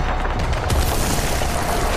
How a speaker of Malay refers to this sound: melaporkan bahawa pelancar bom asap kenderaannya telah terkena tembakan. Lantas meletup.